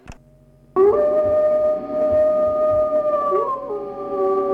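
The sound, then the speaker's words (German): Two wolves (Canis lupus) howl together in long, sustained tones, one voice higher and one lower, starting abruptly after a brief click and holding steady, loud, with slight pitch glides near the end. “Wolf Canis lupus, zwei Tiere.”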